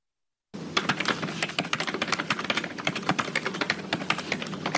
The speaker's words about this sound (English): That's a it's a keyboard sound, by the way.